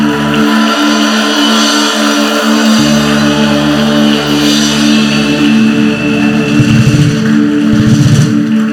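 audience cheering and shouting

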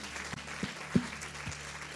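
applause

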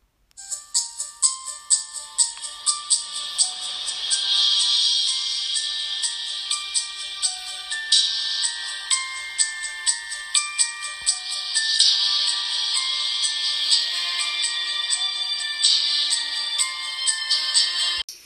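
telephone ringing

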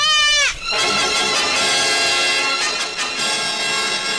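sheep bleating

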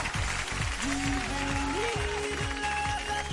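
applause

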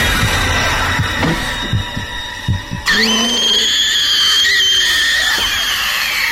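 fast pounding heartbeat

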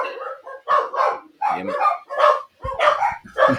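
dogs barking

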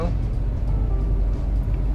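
car interior road noise

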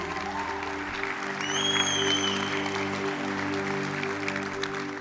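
church audience applauding

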